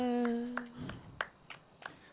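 Slow, steady hand clapping: about six sharp claps spaced roughly a third of a second apart, moderately loud. A faint drawn-out vocal tone fades out under the first few claps.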